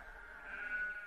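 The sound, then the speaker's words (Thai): A single sheep, brought to be watered, bleats in a wavering, nasal tone that rises and holds for about a second, moderately loud over faint background noise, with no one speaking. “เช้าเนี้ย เรามาเพื่อจะให้น้ำแกะของพ่อเรา”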